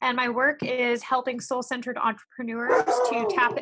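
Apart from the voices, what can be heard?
dog barking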